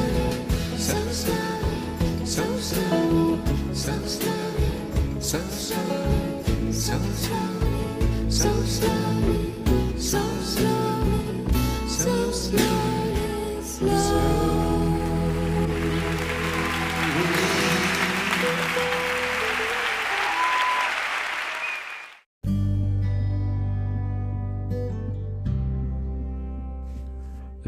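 A recorded song plays loud and full with a steady beat, then swells into a broad roar like applause before cutting abruptly into another sustained musical passage.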